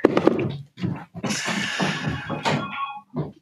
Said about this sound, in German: Ich glaube, bei mir hat es gerade geklingelt, oder? Ich glaube ja, ja.